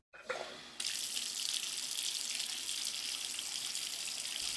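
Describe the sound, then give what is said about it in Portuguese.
Water gushes steadily from a tap, starting with a brief splash and then settling into a continuous, fairly loud hiss of running water, with no voices. “Por onde passa, de onde vem, para onde vai essa água?”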